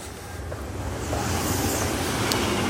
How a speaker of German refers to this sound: Und nochmal, es, jetzt kommt wieder ein Zug, ich werde verrückt.